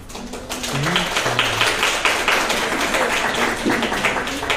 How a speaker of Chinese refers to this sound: 很孤寒呢，你的掌声。 大家不有反应。